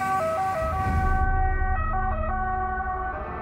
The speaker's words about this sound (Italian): nel frattempo sentivo sirene in lontananza, stava giungendo l'automedica.